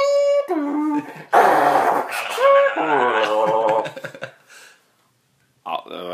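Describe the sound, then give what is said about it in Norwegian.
A voice mimics a dial-up modem handshake with warbling, squealing tones and harsh static bursts for about four seconds, then falls silent before a short vocal sound at the end. “Um, da hadde vi på Modem. Uh, hvem kan vel glemme den lyden?”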